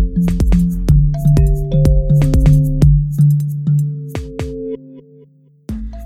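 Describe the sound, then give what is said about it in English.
Instrumental outro music produced by a producer plays alone, with bright plucked, chiming notes over a steady sustained low tone, fairly loud, briefly thinning out near the end before another note strikes. “shout out to friend of the show, …, for producing the intro and outro music and assisting with mixing and mastering.”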